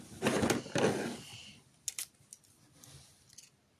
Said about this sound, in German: Dann habe ich noch ein paar Scheren, und zwar ein paar sehr viele.